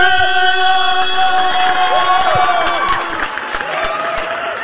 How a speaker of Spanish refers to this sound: se merece, un aplauso. Este, es, más, todos pónganse de pie. Ponga, espérate, hasta nosotros nos vamos a poner de pie. Me lo reciben con un fuerte aplauso a.